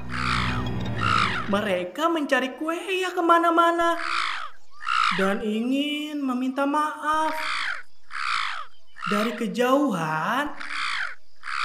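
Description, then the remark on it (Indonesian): A harsh, raspy caw of a black bird, like a crow's, rings out loud at the very start, then stops as a person begins speaking steadily for the rest. “Tubuh mereka menjadi hitam Seketika mereka menjelma menjadi burung hitam, buruk rupa.”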